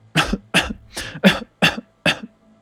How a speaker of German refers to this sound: hustet